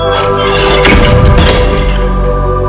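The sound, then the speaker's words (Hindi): A loud, heavy door slam crashes shut partway through, just before a frightened woman running to get out reaches it. Its impact rings out over a sustained, tense tonal drone that continues before and after. “दरवाजा एक जोरदार आवाज के साथ बंद हो जाता है”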